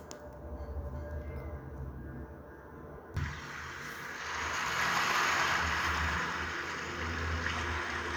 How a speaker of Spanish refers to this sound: Ahora solo disfruta este paisaje. Las olas del mar.